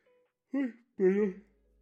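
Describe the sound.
A voiced yawn by a speaker on air, short of oxygen: two short, drawn-out vocal groans in quick succession, the second longer and fuller, then quiet.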